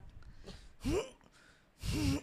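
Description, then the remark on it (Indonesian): A voice imitates a forceful straining exhale at the gym, two loud breathy bursts with a slight grunt, like someone pushing out air while lifting a heavy weight. “oh ini ternyata emang harus teriak kalau ya tapi emang ada orang yang nggak teriak cuman main nap buang napas doang”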